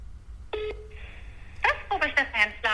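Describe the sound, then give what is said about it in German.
A phone call to Hamburg being dialed on speakerphone: a short electronic beep, then a thin sustained tone, followed by a voice talking over the line at moderate volume. “Also, okay, ich rufe mal jetzt in Hamburg an.”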